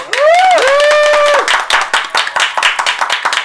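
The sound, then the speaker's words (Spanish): Loud audience applause for a co-host as he is introduced, with steady, dense clapping, topped at the start by a rising and falling whoop of cheering before the clapping carries on alone and thins slightly. “Un aplauso para”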